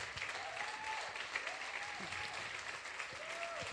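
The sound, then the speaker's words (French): A crowd stands to applaud a woman, with dense clapping filling the whole stretch at an even, strong level, while a few voices rise above it with drawn-out calls or cheers. “Est-ce qu'on pourrait l'applaudir? Tout se lever, j'aimerais qu'on l'applaudisse.”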